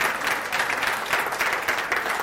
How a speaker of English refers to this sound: I think that's worth a clap, don't you? I really do, yeah.